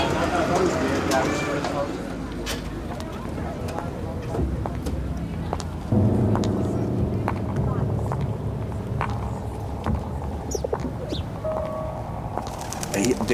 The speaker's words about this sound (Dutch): We moeten nu wel eh, de boot af. Laten we gewoon eraf lopen.